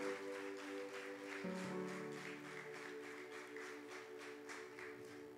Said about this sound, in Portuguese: Diga glória a Jesus e dê um aplauso bem forte para o Senhor.